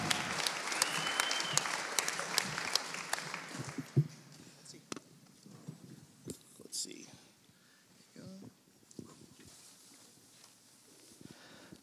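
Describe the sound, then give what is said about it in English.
A crowd claps steadily for several seconds to welcome a speaker up, dense and lively at first, then thinning out into scattered individual claps and rustling as the applause dies away. “Would you welcome her up as well?”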